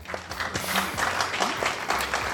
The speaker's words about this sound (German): Wir haben das wieder äh, großartig gemacht. Dafür ähm, Applaus.